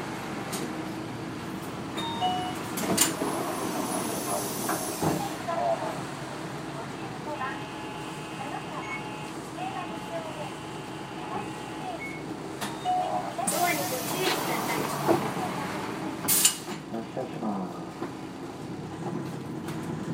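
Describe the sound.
Steady engine rumble and road noise inside a moving bus, route 1112 in Hakata, Japan, with rattles, brief hissing bursts and a few chime-like beeps, while faint voices and a Japanese next-stop announcement for Hakata Rinko Police Station North Exit are heard over the ride.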